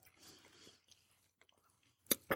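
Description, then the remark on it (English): Crunchy chewing of popcorn, soft and wet at first, then a pause before two sharp, loud crunches near the end. “okay, y'all, we in here passing popcorn back and forth.”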